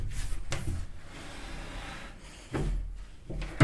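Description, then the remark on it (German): The door of a home recording studio is pushed shut, with a few wooden thumps and latch clicks spread over a few seconds and soft rustling and handling noise in between. “Da sind wir drin und wir machen jetzt die Türen zu. So, ups. Die erste Tür ist zu.”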